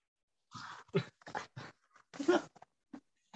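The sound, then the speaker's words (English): A female dog, fed Alpo dog food, whimpers in a series of short, uneven yelping bursts, about seven or eight, moderately loud, with brief pauses between them. “I fucking feed her Alpo dog food.”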